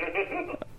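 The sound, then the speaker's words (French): A button on a telephone console keypad sounds for a moment, a steady electronic beep at moderate volume, ending with a short click as the key is released. “faut que tu pèses sur un autre piton de la console”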